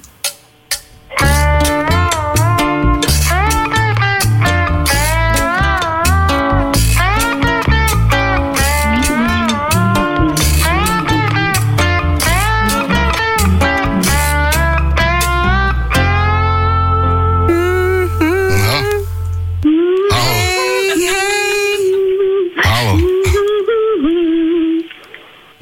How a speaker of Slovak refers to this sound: slide gitara, vieš, že ťaháš po tých strunách, mm, robí to také pekné zvuky a môže ti to niekedy evokovať aj také nejaké zvuky.